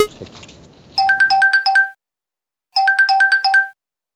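A bright electronic bell rings in two rapid, trilling bursts of about a second each, separated by a short pause, signalling that a speaker's time is up. Faint murmuring voices trail off just before the first burst.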